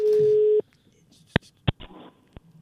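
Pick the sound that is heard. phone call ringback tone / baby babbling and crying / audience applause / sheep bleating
phone call ringback tone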